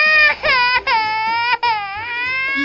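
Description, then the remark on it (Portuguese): A voice imitates a man crying, a loud, wavering wail that dips and rises with a few brief sobbing breaks, heard alone. “Do nada a gente olha para trás e só vê aquele cara que tava que não estava mais tão de bem com a vida assim, chorando.”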